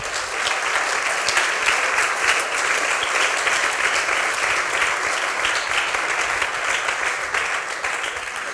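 A room full of people applauding, a dense, steady wash of clapping that stays loud and even for several seconds without letting up.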